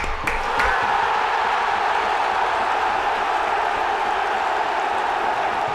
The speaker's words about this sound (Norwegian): Vi klapper i studio.